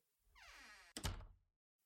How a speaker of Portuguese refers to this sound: Ok, eu vou fechar a porta.